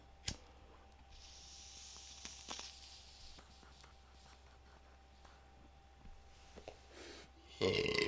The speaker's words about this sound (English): Ooh, ill-timed burp, but I didn't cough.